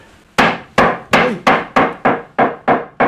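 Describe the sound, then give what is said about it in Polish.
A wooden mallet taps nine times in a steady, fairly quick rhythm, each knock sharp and solid with a short woody decay, and no talking. “To jest taki drewniany młotek, możemy postukać.”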